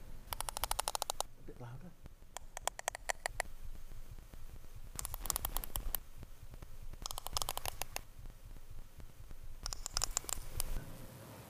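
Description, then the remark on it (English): Sperm whale coda clicks, patterns of clicks sperm whales use to communicate: short bursts of sharp, rapid clicks repeating in distinct rhythmic groups, separated by brief pauses, over a low, steady underwater rumble. “Um, sperm whales make loud clicks to find their food, but they also use the clicks to communicate.”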